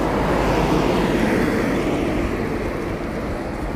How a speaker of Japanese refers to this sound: 普通に外で喋ってるからもう交通の音が大きくてすいませんって感じなんですけど